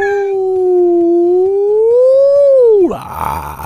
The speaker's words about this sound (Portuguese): 99, que é isso? É A sirene do Bruno.